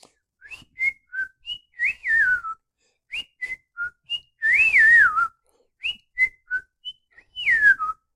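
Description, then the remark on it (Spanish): A person whistles a short, bright melody, with quick separate notes and sliding pitch swoops repeated in three phrases; a brief breathy burst sits in the middle, and no one speaks. “Yo puedo chiflar. Chiflar, no sé si entienden qué es chiflar o silbar.”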